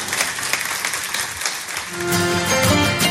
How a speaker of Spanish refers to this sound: Y si tú lo crees conmigo, dale un fuerte aplauso ahí donde estás.